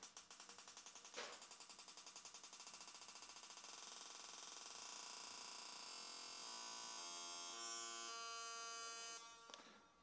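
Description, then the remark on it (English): Computer-generated hi-hat hits accelerate from very slow to fast, repeating so fast they blur into a continuous buzzing hiss, which gradually takes on a steady pitched tone. It is loud, with no talking. “Um, and so to to just isolate that, here's a, a hi hat going from very slow to fast, and you'll hear how that works.”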